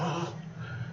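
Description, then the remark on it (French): A dog having a fit whimpers and whines in a brief, agitated burst of strained, tonal cries, continuous for about a second, with no one talking. “c'est le chien de ma fille qui a une crise de”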